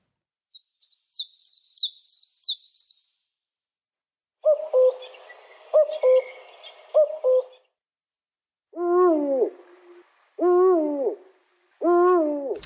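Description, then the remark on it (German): A quick series of about seven high, thin chiffchaff notes, then a cuckoo's repeated two-note call, followed by three deep, drawn-out eagle owl hoots with pauses between them, all clear. “Nummer zwei, der war recht offensichtlich, der Kuckuck.”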